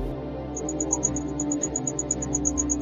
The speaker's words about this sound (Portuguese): É tipo um pri pri pri pri, pri. É, é um, um grilo.